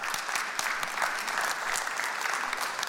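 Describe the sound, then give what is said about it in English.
An audience at First Church claps steadily after a speaker introduces his former youth ministry partner, a dense wash of many overlapping hand claps at a moderate, even level throughout, with no one speaking. “And we got some claps.”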